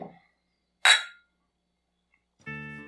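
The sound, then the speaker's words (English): A single bright clink of glasses touching in a toast in a bar, fairly loud with a short ringing decay, followed by silence before a sustained musical tone begins. “Yeah, cheers. Cheers.”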